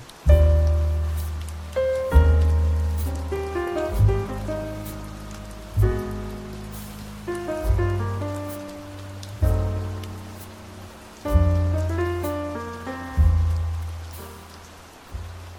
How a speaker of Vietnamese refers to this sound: ngày hôm nay của mình thì cũng hơi kỳ một chút xíu tại vì ngoài trời thì vừa mưa khá là lớn